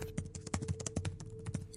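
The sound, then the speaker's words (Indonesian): Rapid, uneven clicking of computer keys with a few sharper mouse clicks, fairly quiet, over a faint steady hum, with no one speaking, as someone types and uses a mouse late at night to revise the last chapter of a thesis. “Suara yang ada ya Paling cuma suara ketikan keyboard sama mouse yang aku pakai buat ngerjain revisi bab terakhir skripsiku.”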